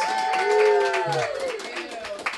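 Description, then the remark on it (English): Audience applause for a list of weekly winners at an awards gathering: a dense wash of clapping that holds steady for a couple of seconds, mixed with whooping voices and cheers rising above the claps. “How about round applause for all those winners?”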